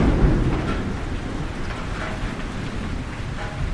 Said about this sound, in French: Euh, oui, il pleut, c'est pas drôle, on n'avait pas prévu ça. On s'était carrément plus entraîné pour le, pour le soleil et la canicule plus que pour la pluie.